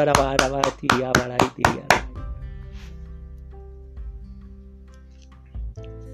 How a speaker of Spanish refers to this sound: Damos fuerte, fuerte el aplauso a la palabra del Señor.